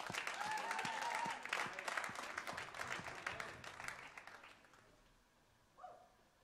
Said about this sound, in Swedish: Amen. Amen, en applåd!